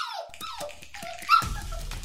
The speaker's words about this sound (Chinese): 迷你泰迪犬喉咙里发出呜呜呜的声音，在原地焦躁地转来转去。